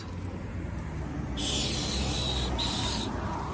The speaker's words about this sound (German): So, mein Reifen ist geplatzt. Ja. Hier hört man das.